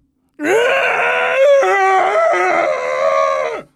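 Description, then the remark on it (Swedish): A person imitates the long, loud, strained bellowing groan of a cousin who was in a comatose state, a single sustained moaning cry that wavers in pitch for about three seconds before cutting off. “Så han brölar bara.”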